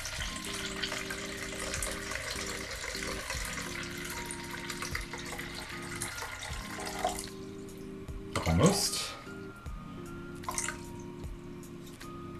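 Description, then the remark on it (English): Water runs steadily from a tap into a measuring container, measuring out 325 milliliters for bread dough, a continuous hissing stream that briefly surges louder near the end, with a person speaking a word over it. “So let's start by getting the right amount of water. We want to have 325 milliliters.”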